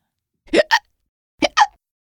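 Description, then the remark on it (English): Two pairs of short, abrupt hiccups, each a sharp gulp followed quickly by a second catch, separated by a brief pause. Clear, with no talking. “A hiccup. That's right. It's a hiccup.”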